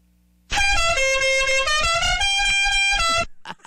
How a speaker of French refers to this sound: Quelqu'un qui s'est acheté un klaxon qui sonne comme ça.